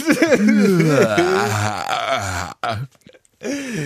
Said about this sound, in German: Der Worum Podcast Gähner der Woche.